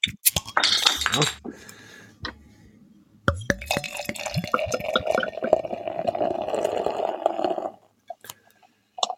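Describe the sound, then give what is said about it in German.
Glass clinks sharply a few times, then brown ale glugs and pours steadily into a glass for several seconds, with a light fizzing splash before it stops. “Na gut, dann würde ich mal sagen, ab ins Glas.”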